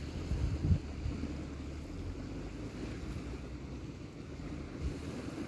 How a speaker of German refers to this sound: Ich hoffe, ihr könnt das Treiben des Meeres auf diesem Podcast hier hören. Es ist wunderschön. Wunder, wunderschön.